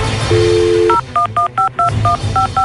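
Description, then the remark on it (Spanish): A short steady dial tone gives way to about eight quick touch-tone dialing beeps in an even rhythm, loud, with no one speaking. “Ya estamos marcando.”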